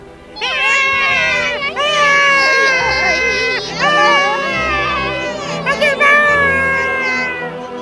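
A crowd of Blefuscu people shouting and wailing in grief as they see their fleet being towed away toward Lilliput: loud, overlapping high-pitched cries that rise, fall and break off, sustained without pause for about eight seconds.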